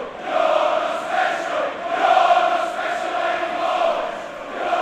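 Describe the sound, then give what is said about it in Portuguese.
A stadium crowd of Tottenham football fans chants in unison at José Mourinho during a match against Manchester United, singing "You're not special anymore", a sustained, swelling roar of many voices with rhythmic rises and falls, loud and continuous without pause. “Você não é mais especial.”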